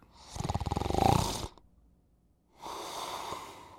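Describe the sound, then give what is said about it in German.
A person snores loudly in their sleep, a rattling, vibrating inhale lasting over a second, then a pause and a softer, breathy exhale, with no talking. “Und wenn die Erschlaffung oder der Rachen noch enger ist, weil die Zunge einfach viel zu hoch und, und viel zu weit hinten liegt, dann kommt es nicht nur zur Engstellung des Rachens und zum Schnarchen, sondern zu einem kompletten Atemstillstand.”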